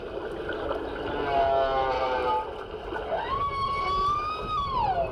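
Humpback whale song recorded in the water in the Kingdom of Tonga, from a film, over a steady watery hiss: faint wavering tones, then a long, loud moan that slides upward, holds a high pitch, and bends back down.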